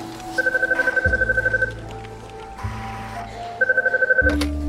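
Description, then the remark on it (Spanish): A telephone rings in two rapid trilling bursts with a pause between them, a bright warbling electronic ring heard over a low droning background hum, as an executive receives a call on a Friday afternoon in the offices of a UK company, subsidiary of a large German energy firm. “recibe una llamada de teléfono”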